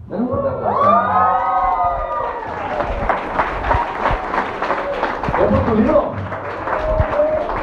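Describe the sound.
A crowd bursts into steady clapping and scattered cheers, with a few raised voices at the start, the dense applause continuing loudly for several seconds.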